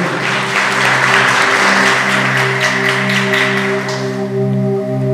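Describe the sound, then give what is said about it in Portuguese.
A church audience applauds the person beside them with dense, steady clapping for about five seconds, over a sustained low keyboard chord that holds throughout, with the clapping thinning slightly toward the end. “Aplauda a pessoa do teu ladinho aí.”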